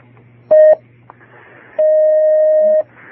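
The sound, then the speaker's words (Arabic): Two steady electronic phone tones, a short beep followed by a longer held one, ring out clearly over a low background hum, as a caller's line connects to a religious call-in program where a sheikh answers questions. “بارك الله فيك ناخذ هذا الاتصال”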